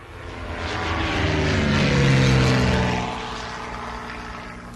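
A propeller airplane engine drones steadily, swelling louder as it passes around the middle, its pitch shifting slightly, then fading back down; no voices are heard.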